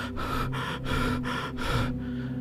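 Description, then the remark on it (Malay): Heavy, rapid panting from a person out of breath after running up the stairs of a lighthouse: about six quick, harsh breaths in a steady rhythm, then a softer trailing exhale, with no talking. “Napas saya tercungap jungap”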